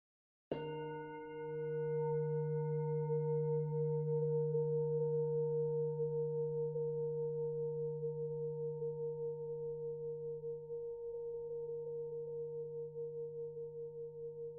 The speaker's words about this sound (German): wenn du diese Übung nach dem Gong nun langsam ausklingen lässt.